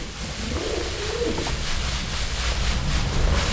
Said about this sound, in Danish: Duerne kurer fra loftbjælkerne